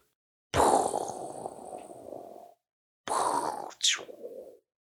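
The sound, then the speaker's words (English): Someone imitates a storm with their voice: two loud, breathy rumbling whooshes, the first about two seconds long, the second shorter with a rising hiss, separated by a brief pause. “Storm noises.”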